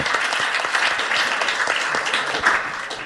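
A crowd applauds steadily for about three seconds, a dense wash of many overlapping hand claps at fairly constant loudness, close and lively, with no one speaking over it.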